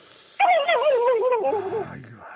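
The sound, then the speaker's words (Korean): A person imitates a turkey's gobble, performed again as an encore, with one loud, warbling vocal burst of about a second and a half, its pitch wobbling rapidly before trailing off into quiet. “다시 한번 앵콜로 다시 한- 칠면조 소리 들어본 적 없.”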